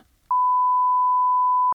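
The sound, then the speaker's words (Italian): A single steady electronic tone from a home answering machine as its messages are checked, held at one pitch for about a second and a half before cutting off abruptly, sounding clear with faint low rumble beforehand. “Vado verso il telefono. Controllo i messaggi alla segreteria.”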